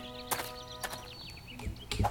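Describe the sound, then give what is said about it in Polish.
Slow, evenly spaced footsteps from a video game character walking slowly forward, about four distinct thuds over two seconds, set against a steady humming background with faint bird-like chirps. “Jak trzymam kontrol, obróciłem się w lewo, mogę sobie iść powoli.”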